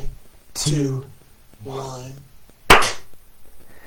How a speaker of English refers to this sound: Should, should, we clap it? Sure. Let's clap it. Let's clap it. That way we have it synced up.